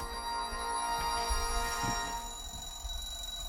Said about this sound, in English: Nice transition from music to an alarm.